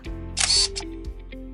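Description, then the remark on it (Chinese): A camera shutter fires with a bright, crisp snap and a short mechanical whir, followed by a few softer clicks, over a faint, steady tonal background, as a group photo is taken with a three-dimensional balloon. “OK，没问题，我来开相机，一起拍照。”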